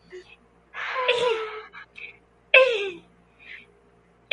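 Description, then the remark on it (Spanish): A voice imitates a mating turtle's call: two strained groaning bursts, the first long and breathy, the second shorter and sharper, with quiet pauses around them. “Y y luego hacen el sonido de la tortuga, aquí va.”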